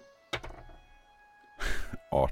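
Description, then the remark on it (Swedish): Dice drop with a sharp knock into a dice tray, then rattle and clatter across it in a short burst as a player rolls for cultural knowledge, and a voice briefly speaks at the end. “Det blir trångt i mitt dice här nu.”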